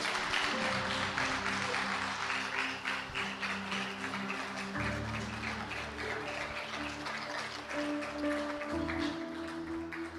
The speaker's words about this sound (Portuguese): Se é para aplaudir, aplaude direito.